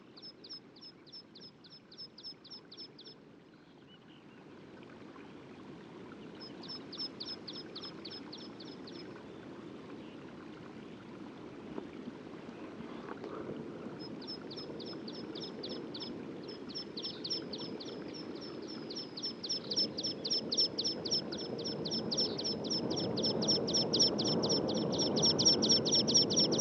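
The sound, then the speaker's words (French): A water pipit (mountain pipit) sings in bursts of rapid, repeated high-pitched notes, pausing between phrases before a long final run, all over a steady low rushing of wind that grows louder with a gust. “Donc là, Pipite montagnard ou pipite spioncelle.”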